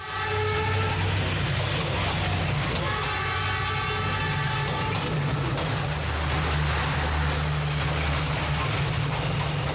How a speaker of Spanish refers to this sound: Estamos en una estrecha calle por la que pasan varias veces al día los trenes que recorren la ciudad. Ya lo están escuchando.